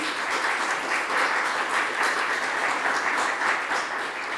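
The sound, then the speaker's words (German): An audience applauds all the guests on the podium of a panel discussion, a dense wash of many hands clapping at an even loudness for several seconds with no voices over it. “Und vielleicht klatschen wir einmal zu Beginn für alle Gäste auf dem Podium.”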